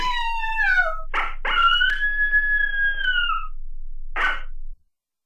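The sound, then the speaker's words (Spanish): Coyotes howl: a few quick falling yips, sharp barks, then one long steady howl, and a final bark, loud and with no talking. “Herida y a punto de desmayarse, aparecieron sus amigos los coyotes, los cuales se le fueron encima a la gente.”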